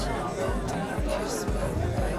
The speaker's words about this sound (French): Elle pousse les portes du bar. Le brouhaha, les gens, l'alcool. Elle s'avance dans la foule.